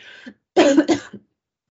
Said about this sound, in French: j'ai la gorge serrée qui. J'ai besoin de tousser. Attends. Je reprends après.